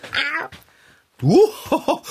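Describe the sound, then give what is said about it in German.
A tomcat meows twice, each a loud rising-and-falling wail, separated by a brief pause, followed by a few short throaty chirps at the end. “Komm, Kater, ich bürste dir das Fell.”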